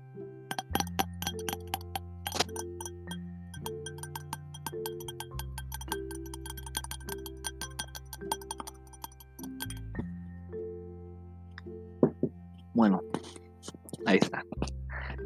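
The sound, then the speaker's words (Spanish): Light taps on a glass goblet for ASMR repeat in an uneven rhythm, each leaving a soft, bright ringing tone, with a few louder clinks near the end. “Y el último es con una copa de vidrio.”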